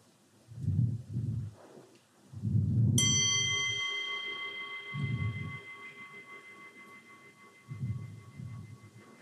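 A meditation singing bowl is struck once and rings out with a bright, sustained shimmering tone that slowly fades, while soft low muffled thumps pulse intermittently underneath.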